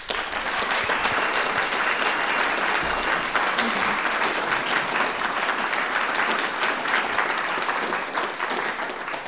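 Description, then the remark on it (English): Sustained applause from a live audience for the candidates at the end of a debate broadcast on KZMU, a dense, steady wash of clapping that holds at full strength for about nine seconds with no voices standing out. “Um, we will now finally ask our live audience for a round of applause for the candidates.”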